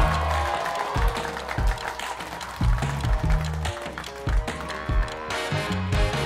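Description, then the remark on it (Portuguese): A group applauds to welcome a clown and improv performer as a guest, steady dense clapping with a few louder accented claps, holding at a fairly even level for several seconds with no one talking. “Receba com uma salva de palmas”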